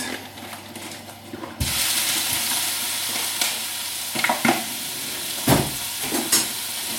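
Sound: food sizzling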